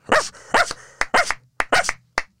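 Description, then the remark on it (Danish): A person imitates a dachshund barking: about ten sharp, high yaps in quick clusters of two or three, loud and alone, with brief pauses between bursts. “Det er gravhunden.”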